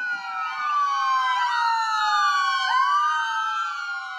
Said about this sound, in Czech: Za prvé by to mohla být eh, siréna záchranné služby nebo hasičů.